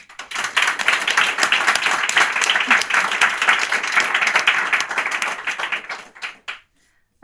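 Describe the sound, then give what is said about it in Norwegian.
An audience at a book talk gives sustained applause for the novelists present. Many hands clap in a dense wash at steady loudness for about six seconds, then thin into a few scattered claps and fall silent. “Og jeg syns vi kan få en god applaus for alle.”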